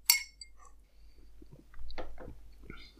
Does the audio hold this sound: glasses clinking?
yes